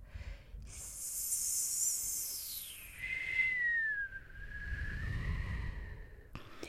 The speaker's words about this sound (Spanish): Oigo el viento susurrar en la puerta.